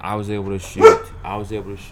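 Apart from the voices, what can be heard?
dog barking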